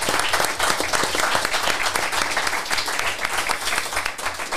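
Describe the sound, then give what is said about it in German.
Sustained applause from an audience, a dense, steady wash of many hands clapping at fairly high volume throughout, with no speech over it. “besten Dank dafür, dass ihr so feine Begriffe habt und vielleicht noch mal einen Applaus für alle die uns das hier ja. schreiben habt.”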